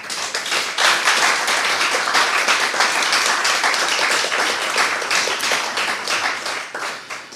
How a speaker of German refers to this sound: bitte einen warmen Applaus an dem warmen Tag.